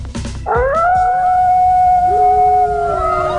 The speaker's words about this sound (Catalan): Que venen els llops